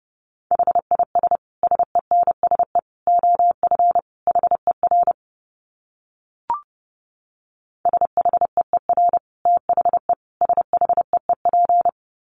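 Fast Morse code at 30 words per minute in a single steady mid-pitched tone, rapid dits and dahs in two runs split by a few seconds of silence and a brief click, with no voices.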